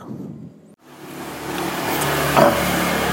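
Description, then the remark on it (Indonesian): A car engine hums steadily from inside the cabin, dropping out briefly before swelling back and growing louder as if gently accelerating. No one speaks. “Oke, selamat datang di podcast dalam mobil bersama host kesayangan kita semua, boy kita semua.”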